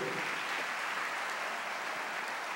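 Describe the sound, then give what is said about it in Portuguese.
An audience applauds the Lord Jesus steadily, a dense, continuous wash of many hands clapping at an even level throughout, with no voices standing out. “Aplauda o Senhor Jesus pelo presente que ele nos deu.”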